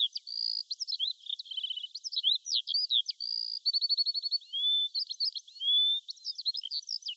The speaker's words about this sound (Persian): بعضی صداها دلنشینن. مثل صدای موسیقی، یا صدای آواز پرندگان